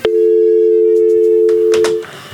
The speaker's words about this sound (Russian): Ой, звонила, не могла дозвониться. Что это такое? Линия занята.